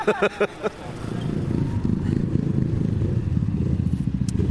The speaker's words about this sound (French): voilà, c'est chiant. Hein on aime bien les motos, on le montre. Ils vont faire un tour, hein, je sais qu'ils vont revenir. En plus, c'est pour faire les gros bouffons euh, en faisant du wheeling là, non merci. C'est moche.